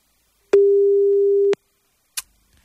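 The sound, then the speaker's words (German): A single steady, one-second ringback tone from a telephone line on an outgoing call, clean and fairly loud, followed by a short click and then quiet; no one speaks. “Es klingelt, es klingelt, aber ich hoffe, es ist hier jetzt nichts passiert oder so.”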